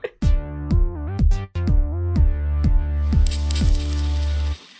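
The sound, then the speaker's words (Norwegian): A short, loud electronic jingle: a rhythmic run of bright synth notes with rich buzzy tones, swelling into a brighter, noisier wash before cutting off abruptly. No voices. “Da kommer det en vignett nå, og så er vi tilbake igjen straks.”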